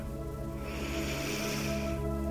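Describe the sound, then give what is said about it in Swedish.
A long, steady inhalation drawn in through the nose during a guided breathing exercise, a breathy airflow sound lasting a couple of seconds over a faint, constant low hum, with no talking. “Andas in.”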